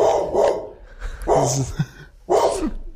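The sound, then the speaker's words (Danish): A dog down below barks three times in close succession, sharp and fairly loud, with short pauses between the barks and no one talking. “Det ved jeg ikke, om man kan høre. Der er en hund nede.”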